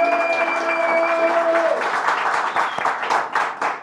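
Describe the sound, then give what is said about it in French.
A room full of people at the Hard Café claps and cheers loudly and steadily for several seconds, with a sustained tone fading out early on beneath the crowd noise. “Vous pouvez refaire du bruit très fort comme si vous étiez 10 000.”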